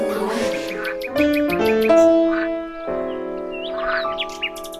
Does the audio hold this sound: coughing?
no